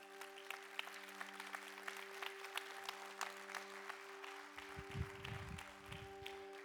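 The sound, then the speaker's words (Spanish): An audience claps steadily throughout at a preacher's invitation, a dense wash of many hands at moderate volume with a low steady hum underneath. “Si tú realmente crees eso, yo te voy a invitar a que es un fuerte aplauso.”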